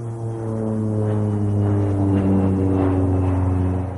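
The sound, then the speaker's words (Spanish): A small propeller plane flies over the desert near Albuquerque, its engine drone rich and buzzing, growing slightly louder as it passes overhead, with no voices present. “Una avioneta sobrevuela por el desierto.”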